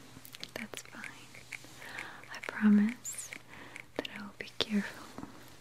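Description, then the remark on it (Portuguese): Scissors snip hair close to a binaural microphone during a hairdresser salon role-play, in sharp, irregular bursts, crisp and intimate, while a soft whispering voice murmurs underneath. “Tá ouvindo a tesoura?”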